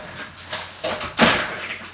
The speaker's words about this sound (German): So, Dolly hat jetzt ihre Tür geöffnet bekommen von mir, wie sich das gehört und kann jetzt draußen schalten und walten.